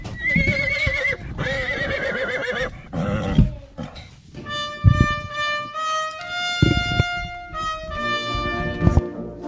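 A horse gives a long, wavering high-pitched whinny, followed by more neighs and snorts over a steady series of hoof clip-clops thudding in an uneven rhythm.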